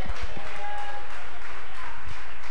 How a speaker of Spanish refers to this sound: Le da palmas a Dios.